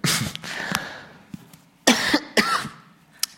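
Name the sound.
coughing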